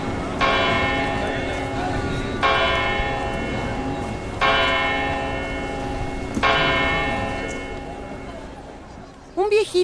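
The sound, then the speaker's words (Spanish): A tower clock bell tolls four slow, evenly spaced strikes, each loud resonant clang ringing out and overlapping the next, with a brief voice starting just at the end. “vino a vivir al barrio y todas las tardes, cuando el reloj de la torre toca las seis campanadas, hace así.”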